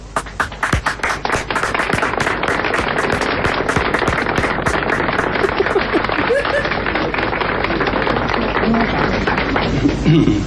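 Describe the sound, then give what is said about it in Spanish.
An audience applauds steadily for about ten seconds after a call for applause for Jesus Christ, a dense, loud crackle of many hands clapping at once, with a few scattered voices and shouts mixed into the ovation. “Gracias por los aplausos, a pesar de que no son para mí.”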